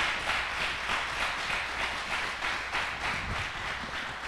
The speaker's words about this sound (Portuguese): Você pode dar um aplauso para Jesus.